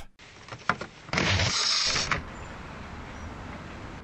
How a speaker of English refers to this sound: We'll simply open the window. That ought to do it.